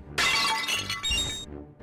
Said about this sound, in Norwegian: Faen, slutt å knuse pottene mine!